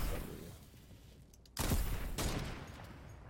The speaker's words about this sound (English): There's gunfire up here, and yeah.